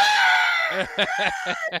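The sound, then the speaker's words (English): A voice imitates someone yelling in fright: a long, strained high-pitched scream breaks into four or five short, choppy yelps, loud, with no other sounds. “and because all I could hear him was yelling,”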